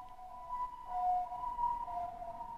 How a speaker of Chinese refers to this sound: 很妙哦，救护车呼啸而过